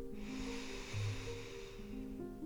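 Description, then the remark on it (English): A long, deep breath drawn in through the nose during a guided breathing exercise, a steady airy hiss lasting a couple of seconds over a soft sustained musical drone, clearly audible. “Breathing in”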